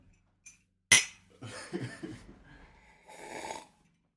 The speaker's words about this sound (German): Ah, jetzt hört ihr auf, wie asozial wir Kaffee trinken.